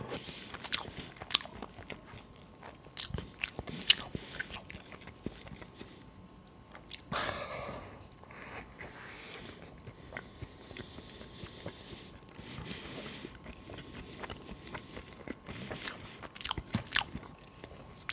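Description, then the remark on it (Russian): Crisp bites and wet, crunchy chewing repeat irregularly for the whole stretch, with sharp snapping crackles between softer mouth sounds and no talking. “Кусай его, кусай его.”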